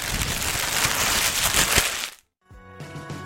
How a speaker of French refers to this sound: Et je vais vous laisser avec du bruit de papier parce que c'est quand même très sympa.